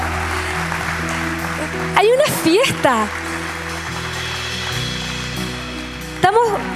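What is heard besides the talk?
audience applause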